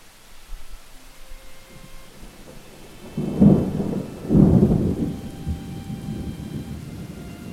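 A thunderstorm with steady, heavy rain hissing throughout, broken by two deep, booming rolls of thunder in quick succession midway through. No voices.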